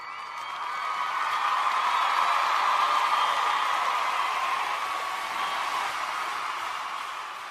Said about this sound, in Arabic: صفقوا لي يعني حيوني بصفقات اليد